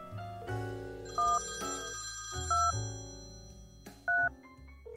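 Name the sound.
telephone ringing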